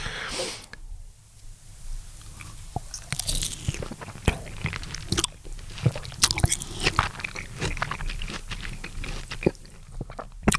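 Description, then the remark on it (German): Wet biting and chewing of juicy orange segments, with repeated squishy crunches and small slurping pops in an irregular rhythm, heard alone with no talking. “Ich habe jetzt nicht extra laut gegessen, aber beim ersten Biss hört man, wie diese kleinen Zäpfchen, gefüllt mit wohlschmeckendem Orangensaft, einfach in meinem Mund explodieren.”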